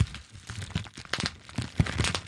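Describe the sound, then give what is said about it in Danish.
Bubble wrap being squeezed by hand, crinkly plastic rustling broken by several sharp, irregular pops, moderately loud, with no voices. “Og det, man så gør med det, det er, at der er ligesom øh, en masse bobler, som uh, har tryk i sig, og så kan man ligesom trykke dem ud.”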